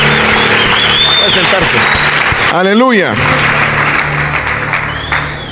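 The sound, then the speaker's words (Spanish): An audience applauds the Bible after a scripture reading, loudly and steadily, a dense wash of clapping that runs the whole time while a man's voice calls out over it partway through. “Estas palabras de Dios, denle un aplauso a la Biblia, aleluya.”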